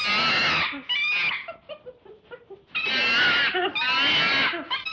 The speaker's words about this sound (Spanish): Gorila. Al gorila le gusta comer bananas.